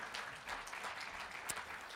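An audience applauds with dense, steady clapping that stays at an even level for the whole two seconds, a crackly wash of many hands with a few sharper claps standing out. No one speaks.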